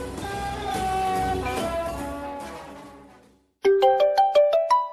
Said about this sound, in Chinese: 哎，九点半，哎呦，我手机突然响了，我赶快接啊，差点把电话给摔地上。